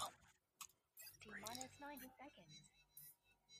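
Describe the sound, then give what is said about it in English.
A countdown clock ticks off 90 seconds for a rapid-fire question round, sharp, evenly spaced clicks about every half second, moderately loud, with muffled voices and a low hum running underneath. “All right, rapid fire, 90 Jesus. seconds on the clock.”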